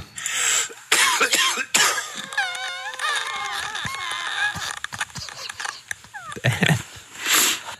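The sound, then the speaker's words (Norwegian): Heavy, chesty coughing from a sick man: loud, harsh bursts come in fits across several seconds, broken by strained, wheezy, groaning breaths between the coughs, with a plastic-sounding noise from the lungs after the coughing. “Han har sendt oss en lyd av lungene sine.”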